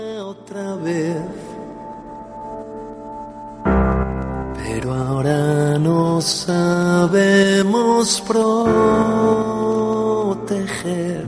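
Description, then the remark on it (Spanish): A newly released pop-rock song with a male lead vocal over guitars and a full band, entering softly then swelling into a louder, driving section with steady drums and sustained sung notes. “uno de los que ha sido presentado esta última semana es este tema de …, se llama …, suena así”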